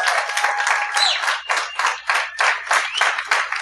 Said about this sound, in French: J'aimerais ça qu'on l'applaudisse. Applaudissez-le très fort.